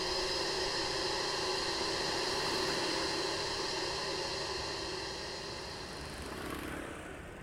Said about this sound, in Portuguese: Esta é, aliás, uma das zonas com mais ruído na cidade.